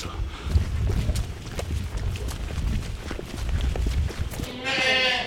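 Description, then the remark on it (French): Goats bleat at a goat-farm milking area where they line up to be milked and fed pellets: a loud, wavering bleat rings out near the end over steady shuffling, hoof clatter and low rumbling noise, with no one speaking. “Euh, les, chèvres, on les met là-bas dans le parc.”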